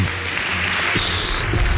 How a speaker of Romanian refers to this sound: Aplauze încă o dată celor implicați în acest proiect.